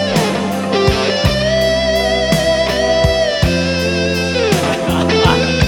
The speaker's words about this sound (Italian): Ma con che cosa stava suonando la chitarra? Mamma mia, ragazzi, che tocco!